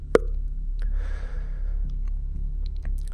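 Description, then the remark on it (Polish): A single sharp mouth-made pop imitating a wine cork being pulled as waiters open a bottle of wine, clear, followed by soft breathy noise and quiet hum with no talking. “W międzyczasie e, dwóch kelnerów przyniosło dwie butelki wina, postawiło, e, e rozstawiło cztery kieliszki, zaprezentowali butelkę, e, otworzyli, e, otworzyli z charakterystycznym”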